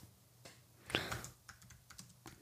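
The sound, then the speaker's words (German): Quick, irregular clicks of typing on a computer keyboard as a father searches online for how long plastic takes to rot. The typing is moderately quiet, with one louder clack near the start and no voices. “Mein Papa googelt gerade nach.”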